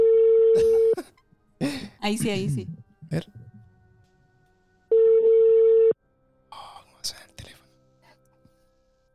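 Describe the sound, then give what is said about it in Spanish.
Two long, steady ringback tones about four seconds apart, loud, from a phone call being placed to a friend, with hushed talk and a brief cough-like sound between them, then quieter murmuring and small handling noises. “Ya lo vamos a llamar acá un amigo que nos contactó por Instagram”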